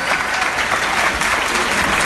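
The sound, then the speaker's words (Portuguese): Sustained audience applause for the author of the initiative, President Carlos Luz: a dense, steady wash of many hands clapping at once, fairly loud and unbroken for the whole couple of seconds with no voices standing out. “Transfiro com absoluto merecimento essas general das palmas para o autor da iniciativa, meu caro amigo presidente Carlos Luz”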